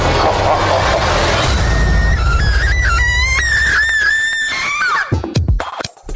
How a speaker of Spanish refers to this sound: Ese grito